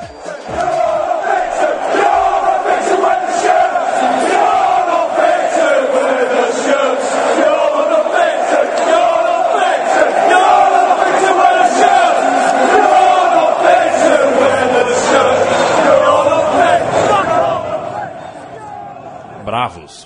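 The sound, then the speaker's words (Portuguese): A huge crowd of angry England football fans chants together after England lost a knockout match to Iceland, a loud, steady roar of massed voices holding one sung pitch for nearly twenty seconds before it drops away at the end. “muito bravos os torcedores da Inglaterra, com toda razão.”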